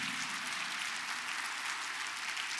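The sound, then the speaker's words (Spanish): A church audience applauds steadily for Jesus Christ during a Spanish-language sermon, a dense, continuous wash of many hands clapping at once, sustained and even throughout without any voices rising above it. “Dele un fuerte aplauso a Jesucristo.”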